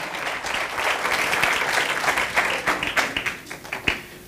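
An audience bursts into loud, sustained applause, a dense wash of many hands clapping that swells and then thins into scattered claps toward the end.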